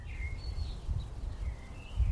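Several faint, high bird calls and chirps, scattered across a few seconds over a steady low outdoor rumble, as birds call to each other in the Bois de Vincennes woods in Paris, France.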